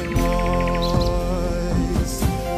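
Nightingale chirps and quick trills flutter in rapid pulses over a steady, sustained musical drone, with the birdsong fairly prominent throughout.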